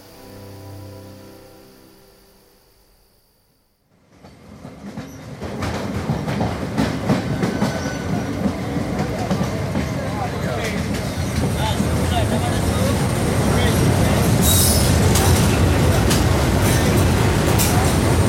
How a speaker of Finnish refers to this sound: Kannurin asema. Odotetaan junaa Mangaloren kautta Karvariin, josta jatkamme autolla Kokarnaan.